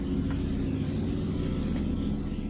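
motorcycle passing by

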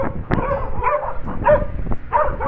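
dogs barking

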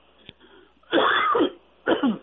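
cough and throat clearing

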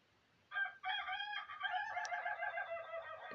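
rooster crowing

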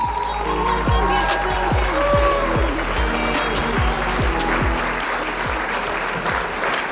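applause sound effect

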